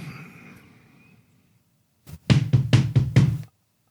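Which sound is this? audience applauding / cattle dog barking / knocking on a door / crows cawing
knocking on a door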